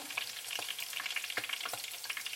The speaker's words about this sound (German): habe ich mir überlegt, kann ich ja eigentlich auch hier äh, die wilde Rauke, den Rucola einfach auch mal, auch mal frittieren. Den nehme ich jetzt so ohne Teig, ohne alles. Nehme einfach mal hier so ein schönes Hähnchen voll. Hau den rein. Oha,